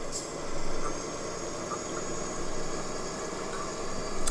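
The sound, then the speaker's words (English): A steady, droning truck engine in a truck driving simulator game hums continuously at a moderate level, with a broad rumbling noise that swells slightly at moments, as the truck swerves wildly across into the oncoming traffic lane. “You should see how far across into the oncoming traffic lane my truck is, and how wildly and crazily I'm driving.”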